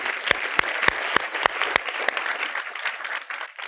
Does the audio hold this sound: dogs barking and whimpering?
no